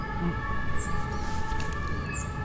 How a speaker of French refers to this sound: Les ambulances.